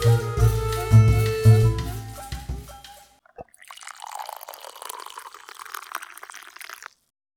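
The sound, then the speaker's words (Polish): After a few seconds of loud, tonal humming, a steady stream of water pours over coffee and splashes into a cup for about three and a half seconds, then stops. No one speaks. “Kawa zalana, możemy zaczynać.”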